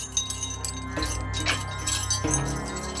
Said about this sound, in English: The keys stuck for one terrifying moment before turning in the lock, and the doors swung open.